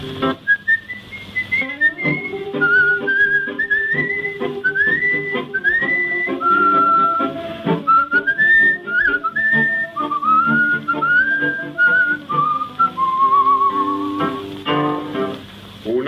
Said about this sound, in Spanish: y un reo meditabundo va silbando esta canción.